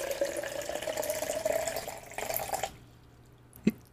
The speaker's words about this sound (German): Hat man das gut gehört? Also bei mir hat der Kompressor leider reingekickt, aber ich hoffe, im, im, im Podcast hört man das Wasser einschenken.